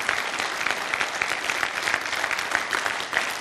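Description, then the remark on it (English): An audience applauds for God steadily for a few seconds, a dense, continuous patter of many hands clapping at an even, sustained level with no voices standing out. “Give God a clap of him.”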